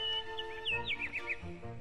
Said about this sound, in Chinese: 鲍勃大叔说：“ 现在让我们坐在阳光下欣赏小鸟的歌声吧。”